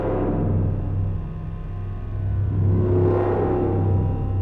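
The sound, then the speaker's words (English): A steady, droning low tone washed in spring reverb, with a filter dulling the highs so everything sounds muffled and dark; the wash swells slightly midway, no voices. “And then with the filter, too.”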